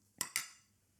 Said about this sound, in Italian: Allora facciamo un cheers al tuo drink preferito. Salute.